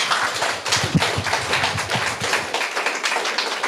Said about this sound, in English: Um, let's give Scott and Misty a round of applause. They've been brilliant, shared so much.